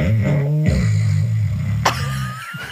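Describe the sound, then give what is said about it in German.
A voice mimics snoring with a low, rattling, throaty rasp drawn out over a couple of seconds, fairly loud, briefly breaking off and starting again near the end. “Du schnarchst so?”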